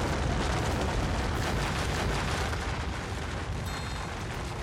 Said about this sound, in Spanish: De pronto, se oscureció el cielo. Tembló el piso granítico y vieron caer desde las altas cimas enormes moles de piedra que producían un estrépito aterrador.